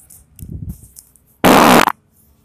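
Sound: fart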